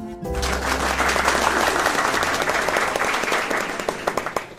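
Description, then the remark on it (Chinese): An audience breaks into steady, full applause at the end of a charity lecture. It holds for several seconds as a dense wash of many hands clapping, then thins out so a few separate, louder claps stand out at the end. “在众人的掌声下，我鞠躬微笑，替这场公益活动做最完美的收尾。”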